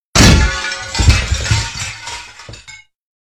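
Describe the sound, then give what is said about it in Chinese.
A loud crashing blow, then several more hard strikes of a pistol being used as a hammer, each followed by clinking, shattering debris. No voices. “原来凶手害怕弄出声响被人发现，甚至不惜把手枪当锤子用。”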